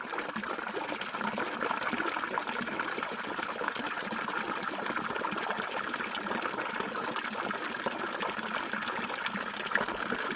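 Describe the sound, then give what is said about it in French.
A village fountain in the Cévennes, at 900 metres altitude, runs steadily, its water splashing and gurgling in a continuous, even wash of sound with no pauses and no voices. “J'ai enregistré le son de la fontaine d'un village sévenol à 900 mètres d'altitude qui, a accompagné toutes mes vacances en fait depuis que je suis toute petite.”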